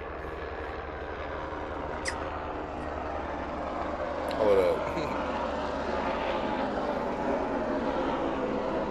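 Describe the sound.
A jet airplane roars steadily overhead, a broad, continuous rumble filling the whole stretch, while a man speaks briefly over the noise.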